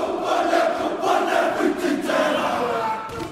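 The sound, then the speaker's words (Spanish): A large crowd shouts and yells together in a loud, continuous roar, many voices overlapping with rising and falling surges for a few seconds, no distinct words standing out. “Con tanto grito así no se concentra nadie.”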